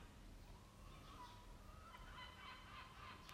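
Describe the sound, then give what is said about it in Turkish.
Seagulls call out several times, heard through a window, their harsh, wavering cries rising over a steady background hiss, with no one speaking. “martı.”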